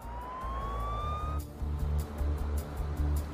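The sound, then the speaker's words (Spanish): The siren of a Glendale, Arizona Police Department patrol car sent to the scene wails upward in a single rising tone for about a second and a half, then cuts off, leaving a low rumbling, pulsing engine-like drone. “Enviaron patrullas a la escena y avisaron al FBI.”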